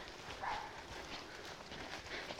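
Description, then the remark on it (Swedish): A small dog barks a couple of times, short sharp yaps that sit faintly over a steady outdoor background hiss. “Och en hund av mindre modell som skäller frisk.”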